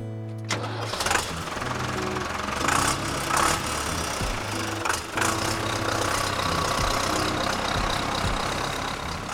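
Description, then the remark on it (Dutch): A car engine cranks briefly, catches and roars to life, then settles into a steady rumbling idle with a few revving swells as the driver is about to drive off. No voices are heard. “ik denk gewoon dat als jij hem gaat starten, zal ik dan gewoon afscheid hier met jou nemen?”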